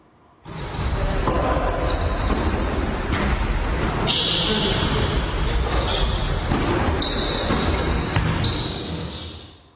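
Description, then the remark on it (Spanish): Basketball sneakers squeak sharply and repeatedly on a hardwood court, short high chirps scattered through about ten seconds over a steady bed of gym noise and indistinct voices. “Sonido de zapatillas, sonido inconfundible del tiempo del básquet”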